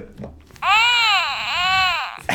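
A baby lets out one sustained, wavering cry lasting well over a second, fairly loud, its pitch dipping and rising before it breaks off, with faint background noise before it.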